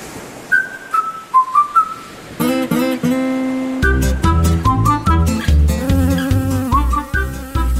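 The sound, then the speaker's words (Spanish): A short whistled tune gives way to a loud, buzzy droning melody over a pulsing beat, a playful musical imitation of a bee zipping through the air. No one speaks. “Preparó sus alitas. Bate, bate. Preparó su colita. Menea, menea. Y voló, voló, voló mucho más lejos.”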